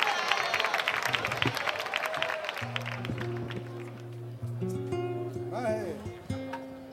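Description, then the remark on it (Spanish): An audience bursts into dense, loud applause with cheering voices mixed in for the artists called onto the stage; the clapping thins out as steady sustained tones and a brief sliding whistle-like sound rise over it. “Un aplauso para ellos y muchísimas gracias a todos ustedes por estar esta noche aquí con nosotros.”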